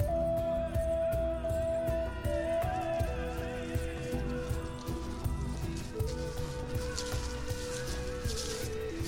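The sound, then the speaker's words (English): Boots of people walking in a forest with a wilderness guide tread steadily over soft forest ground, a regular rhythm of squishy footsteps, with sustained musical tones droning underneath throughout. “The sound of our boots on the ground”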